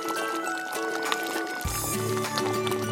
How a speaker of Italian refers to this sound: Esattamente, questo che avete sentito è il nostro stufato yuchni che sta cuocendo amabilmente in una casseruola.